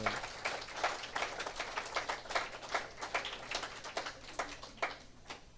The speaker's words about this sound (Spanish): Haz un aplauso a nuestro Señor Jesucristo.